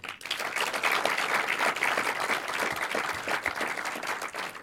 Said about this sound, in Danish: Og mens vi er i gang med klapsalverne, så giv også lige jer selv en stor hånd. Tusind tak, fordi I kom.